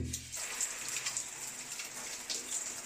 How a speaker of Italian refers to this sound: Ecco, una doccia